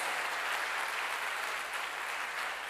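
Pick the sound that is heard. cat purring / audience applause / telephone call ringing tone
audience applause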